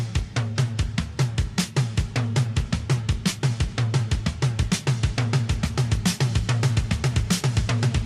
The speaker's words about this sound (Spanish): Así que este mes de abril también va a sonar lo que fue la primera sintonía del programa